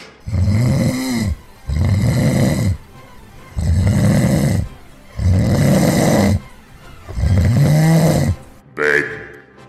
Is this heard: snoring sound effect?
yes